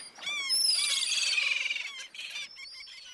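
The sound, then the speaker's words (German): Birds chirping busily, a dense overlapping chorus of high tweets and warbles that stays fairly loud and continuous, briefly thinning near the end before picking up again. No one speaks. “Und wenn diese Vögel jetzt noch weniger Krach machen würden, dann wäre das auch deutlich angenehmer.”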